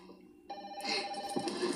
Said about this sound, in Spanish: Ahí está, atención que esta peladita dice ¿Bueno? contestar el teléfono.